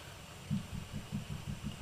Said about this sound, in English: Sounds like there's somebody hammering in my house.